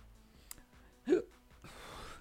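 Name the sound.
hiccup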